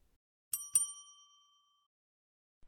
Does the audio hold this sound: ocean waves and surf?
no